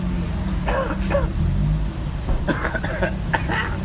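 Several short, rough coughs and throat-clearing bursts come in two clusters over a steady low rumble of background noise.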